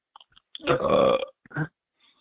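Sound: burp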